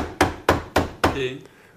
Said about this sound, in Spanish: Este, esta era la, tipa, la, famosa Charlotte Corday. Golpeó la puerta,